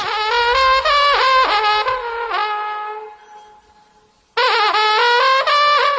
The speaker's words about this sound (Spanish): Este es el sonido de una trembita, instrumento de viento.